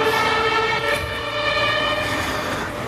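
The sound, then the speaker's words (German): An emergency vehicle siren sounds loudly for about three seconds, a sustained, steady high tone with rich overtones over a low traffic rumble and no voices. “Und jetzt gedacht. kommt gleich ein Nanü, Nana.”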